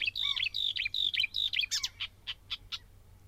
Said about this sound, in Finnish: Kyllä tämä on luhtakerttunen.